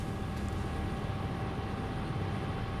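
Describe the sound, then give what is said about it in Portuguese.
A steady, droning engine roar with a dense low-frequency rumble and faint tonal hum from a TV news helicopter's engine and rotor, filming an accident on the Anhanguera highway heading toward São Paulo, continuous throughout with no voices. “Helicóptero do flagrante do helicóptero da Record TV, acidente na rodovia Anhanguera”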